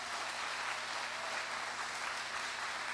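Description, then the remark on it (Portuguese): Steady applause from a crowd fills the whole stretch, a dense wash of many hands clapping at once with no talking, sustained and fairly loud without any break. “Nossa, pode aplaudir, senão eu vou aí aplaudir.”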